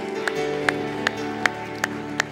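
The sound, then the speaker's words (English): An audience claps hands together in a steady, even rhythm, about six sharp unison claps, over sustained musical chords playing underneath. “Would you clap your hands all over the house?”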